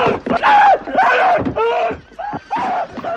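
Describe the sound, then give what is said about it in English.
A captured slaver screams in pain as his tongue is cut out, a series of loud, strained, drawn-out cries in quick succession, with no other speech. “His guys give chase to the other slaver, and you can hear him screaming in the background as they they castrate him, right?”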